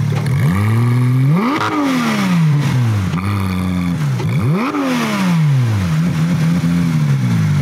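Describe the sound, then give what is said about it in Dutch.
The powerful engine of a race car made road-legal revs hard several times, its pitch sweeping up and dropping back between bursts, loud with a raspy mechanical edge and no voices. “En die raceauto's dan eigenlijk weer een stukje geschikt maken voor de openbare weg.”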